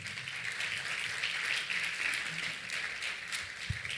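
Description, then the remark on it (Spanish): A crowd at a Christian sermon applauds for the Lord, a dense wash of many hands clapping at once, sustained for several seconds at an even level without any talking. “Dale un aplauso al Señor.”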